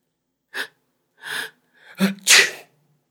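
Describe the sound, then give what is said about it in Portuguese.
A few quick, breathy inhales build up, then a single loud sneeze caused by dust bursts out, followed by silence. No one speaks. “Depois de uma demorada faxina, desempacoto a última caixa de livros, satisfeito por não ter de espirrar mais com toda a poeira dispersa.”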